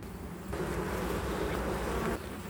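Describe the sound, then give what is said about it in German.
A dense, steady hum of many honeybees buzzing around eleven beehives, continuous, with the swarm's drone swelling slightly in the middle before easing back. No voices are heard. “statten wir den Bienen der Familie Heller einen Besuch ab”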